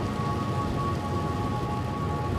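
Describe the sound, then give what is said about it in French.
Heavy storm rain from an approaching typhoon pours steadily, a dense continuous hiss with a low rumble underneath, and no voices. “tu ne trouves pas le typhon se rapproche.”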